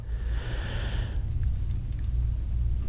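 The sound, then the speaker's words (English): Small metal tags on a dog's collar jingle in a few quick, scattered bursts, light, over a steady low rumble with a soft hiss in the first second. “can you hear the dog? you heard him that time. yeah. Jingle, jingle.”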